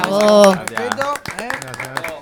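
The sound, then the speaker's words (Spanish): A small group claps in quick, irregular bursts, moderately loud throughout, while voices talk and call out over the top, applauding the children of the Shocks Florals art workshop, where a radio programme is being recorded. “Vamos a dar un aplauso a los chicos aquí ¿Eh?”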